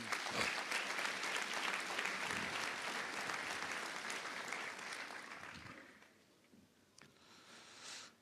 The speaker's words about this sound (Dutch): En om dat vandaag ook een gezicht te geven, heb ik een aantal mensen uitgenodigd hier op het podium. Laten we ze een heel groot applaus geven.